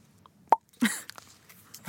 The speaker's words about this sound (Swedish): Oh shit, nu bubblar det här. Oj. Fan, en Trocadero light Aha. pyser över.